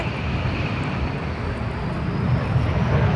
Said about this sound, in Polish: Jesteśmy tutaj przy hangarach, gdzie są hangarowane m 346 Bielik, Mastery. E, samoloty szkolno-treningowe, odrzutowe. Właśnie jeden przelatuje.